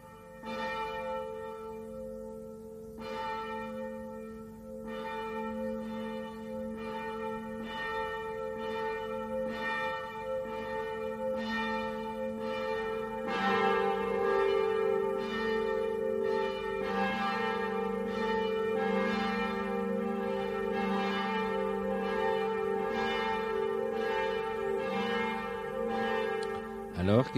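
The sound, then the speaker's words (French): Two church bells ring with steady, repeated strikes: a smaller, higher bell sounds alone first, then a deeper, larger bell joins about halfway, making the peal fuller and louder. “Effectivement, la plus petite des deux, euh, donc qui est la première qu'on a entendue, euh, elle me paraît avoir un son assez ancien, euh, alors que la deuxième est plus dans des sons, je dirais, modernes, voire contemporains.”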